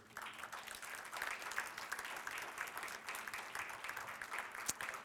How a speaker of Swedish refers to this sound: Amen. Ge henne en applåd.